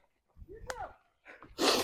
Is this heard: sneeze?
yes